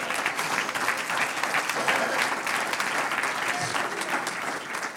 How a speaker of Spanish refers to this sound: Un aplauso al Señor.